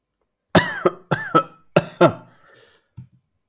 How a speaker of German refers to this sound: hustet und äh, stützt sich am Tisch ab.